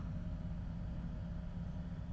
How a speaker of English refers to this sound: The old man walked out the door, climbed in his car, and sped off, leaving me and my co-worker speechless.